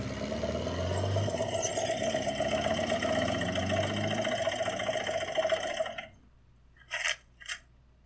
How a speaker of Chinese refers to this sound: 但没过多久，却传来了摩托车的引擎声诶，而且那个声音越来越大，由远至近，朝他们开了过来。